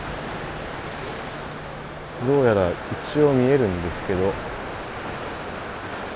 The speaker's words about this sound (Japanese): 激しく波が打ちつけてる音が聞こえて海面見えますね